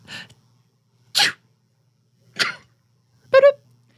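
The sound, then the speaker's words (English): Four short, sharp sneezes, spaced about a second apart with quiet in between. The last one is louder and more voiced. “Oh, I gotta sneeze.”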